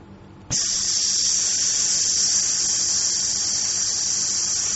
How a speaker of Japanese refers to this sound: で、吐くときにですね、この胴回りがあまりしぼまないように、スーという音を立てながら吐いていきます。ちょっと一緒に行きましょう。吸って、吐きます。